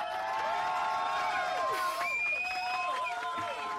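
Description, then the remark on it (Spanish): A large crowd cheers and applauds continuously, a dense roar of voices with rising and falling shouts and whistles layered on top, steady and loud throughout. “Gracias a toda la gente que me aplaude.”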